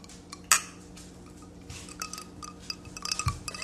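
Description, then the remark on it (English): Drinking glasses clink together in a toast: one sharp, bright clink early on, then a few lighter clinks and rattles near the end, with no talking. “Jiggling our glasses.”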